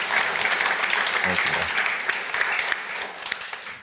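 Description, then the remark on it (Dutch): An audience in a hall applauding steadily after a lecture and conversation, dense overlapping claps sustained at a fairly loud, even level for several seconds, with a brief murmur of voices mixed in. “Groot applaus voor Simon.”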